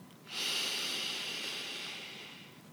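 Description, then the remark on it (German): A single deep inhale through the nose during a guided meditation: a soft, airy hiss that swells in quickly and holds steady for over two seconds, tapering only slightly, with no talking over it. “Atme jetzt hier ganz tief durch die Nase ein”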